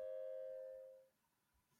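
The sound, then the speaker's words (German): A single doorbell chime rings out clearly, its bright tone sustaining for about a second before fading into quiet background noise. “Äh, ich muss kurz an die Klingel.”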